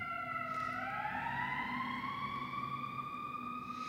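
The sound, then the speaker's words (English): An emergency vehicle siren passing by wails loudly, its tone sweeping steadily upward over a low rumble of traffic, with no voices present. “That siren went by, my impulse was to put my hands up,”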